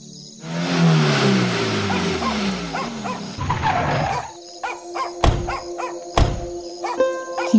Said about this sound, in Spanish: El carro se detiene y sin apagar las luces desciende de un costado